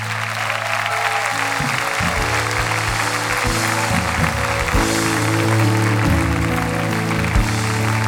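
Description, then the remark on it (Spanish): An audience applauds steadily for about eight seconds during a prayer to God, a dense and fairly loud wash of clapping, with sustained low keyboard chords shifting underneath. “Y si vas a aplaudir, aplaude de verdad.”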